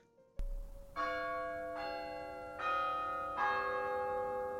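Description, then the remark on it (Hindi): A distant clock tower bell chimes four times, announcing two o'clock, at a steady, unhurried pace, each ringing strike overlapping the lingering hum of the last, with no voices present. “दूर घंटा घर की घड़ी ने दो बजने की सूचना दे दी थी”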